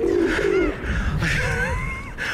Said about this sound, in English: Uh, you're peering down onto the streets of London from a great height. That's right. I don't. Su- oh, pigeons up here.